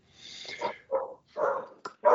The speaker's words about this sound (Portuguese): Ah, deu comida pro seu cachorro? Ele está avisando aí. Ele está querendo participar do podcast aí.